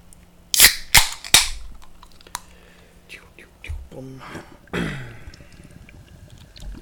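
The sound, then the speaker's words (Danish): Three sharp metallic clicks in quick succession, then a soft pause before a fizzy hiss and gentle pouring as a bottle of IPA beer is opened, with no talking. “Jamen, skal vi ikke prøve? Jo, lad os åbne den.”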